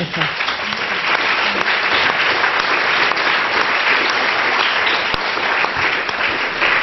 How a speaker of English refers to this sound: I know you've all clapped the panel already, but if you could show your appreciation once more, thank you.